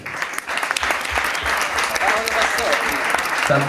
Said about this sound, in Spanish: O sea, un aplauso por favor para él porque